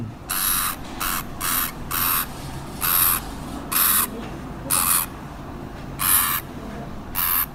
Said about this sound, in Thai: ใครเลี้ยงสัตว์ชนิดนี้ ก็คงจะนึกออกทันทีเลยว่าคือเสียงของหนูแฮมสเตอร์ครับ